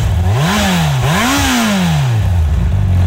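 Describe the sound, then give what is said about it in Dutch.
A 600cc motorcycle with its stock exhaust revs up twice in quick succession, its pitch rising and falling each time before settling back to a steady idle, loud with no talking. “Standaard uitlaat zit er nog onder hoeft ook zeker morgen niet weg.”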